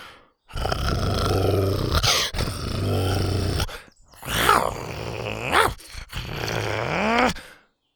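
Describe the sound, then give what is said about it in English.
Deep, rumbling growls of the dinosaurs Buck and the triplets as they lower their heads, loud, come in four long bursts with brief pauses, the later ones rising and falling into snarling, roaring tones. “Buck and the triplets lowered their heads and growled.”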